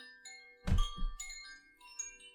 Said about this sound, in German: Ja, ich äh, läute mal gleich meine Glocke. Ich hatte es hier schon mal probiert. Mal gucken, ob das jemand hört.